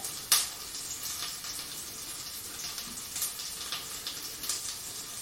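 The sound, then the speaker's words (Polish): Garlic sizzles steadily in butter in a pan, a soft continuous crackle with a few sharper pops and occasional scraping stirs, with no one speaking. “I teraz za momencik przełożę na patelnię krewetki, tylko rozmieszam sobie delikatnie, tak, żeby masło było wymieszane dobrze z czosnkiem, żeby nic mi tutaj nie przypaliło.”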